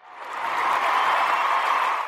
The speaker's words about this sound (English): So, yay. Uh, we'll, we'll give them applause.